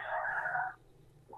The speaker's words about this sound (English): that's that's my dog. Um, you hear,